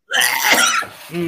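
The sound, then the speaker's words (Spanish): A single harsh, raspy cough bursts out loud, trailing into a short throaty, voiced rasp near the end. “Este tiene tuberculosis.”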